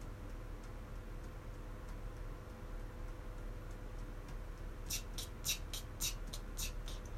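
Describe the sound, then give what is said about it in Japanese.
Soft, quick ticking taps on a mini cajon played at pianissimo volume while practising fine beats, barely audible at first, then a short run of sharper, brighter clicks near the end, all over a low steady background hum. “ミニカホンを叩いてみた( #26 )〜細かいビートを刻もう②”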